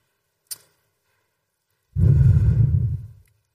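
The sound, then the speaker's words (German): A voice imitates someone blowing into a fire with glowing embers that keeps going out: after a faint click, one long, forceful, breathy blow lasts just over a second, fairly loud, then fades out. “Da hat irgendeiner hat ein Feuer angefacht und regelmäßig, so alle Stunde oder alle zwei Stunden, ist er aufgestanden und hat in das Feuer geblasen, weil es immer wieder ausging.”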